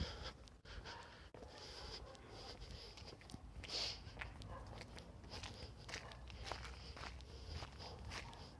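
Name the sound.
footsteps walking outdoors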